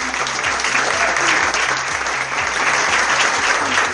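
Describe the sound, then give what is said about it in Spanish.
A crowd claps steadily and loudly at a first-prize award presentation, many hands blending into a dense, continuous wash of applause that holds at an even level throughout, with no voices standing out. “Fuerte el aplauso para Walter Sardi.”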